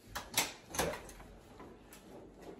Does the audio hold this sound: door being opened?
yes